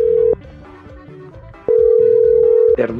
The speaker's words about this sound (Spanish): Ándele, pues. Vamos a marcarle al otro. A ver, a ver cómo nos contestan.